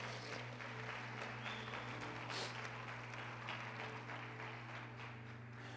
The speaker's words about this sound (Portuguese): Aplauda o Senhor porque Ele vive, aplauda.